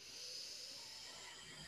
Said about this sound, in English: One more time, deep breath in.